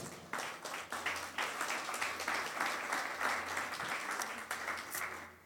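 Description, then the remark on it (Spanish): An audience breaks into sustained applause, a dense crackle of many hands clapping steadily at an even loudness for several seconds without anyone speaking over it. “Dámosle un aplauso.”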